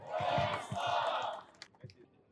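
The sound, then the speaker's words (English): A crowd roars and cheers together, a loud, dense swell of shouting voices that holds for over a second before fading into scattered calls and a few sharp claps. “Always want to rev up the crowd.”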